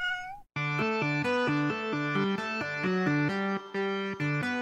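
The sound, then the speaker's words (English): A short, clear meow from a person pretending to be a cat rings out alone at the start, then a loud burst of bright, chord-heavy music takes over and plays steadily to the end. “Judge John Hodgman, the court of last resort when your wife won't stop pretending to be a cat and knocking the clean laundry over.”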